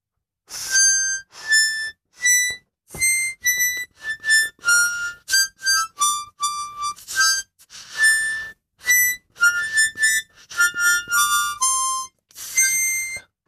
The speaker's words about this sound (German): Welcher Song war das, den er gerade auf der kleinsten Mundharmonika der Welt probiert hat?